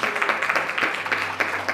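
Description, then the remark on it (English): After a prayer, a church audience applauds for the Holy Ghost. Many hands clap in a dense, steady wash of crackling bursts that holds at an even, fairly loud level for the whole stretch, with a faint low hum beneath. “Let's give the Holy Ghost a round of applause.”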